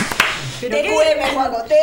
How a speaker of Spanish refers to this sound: ¡Un aplauso!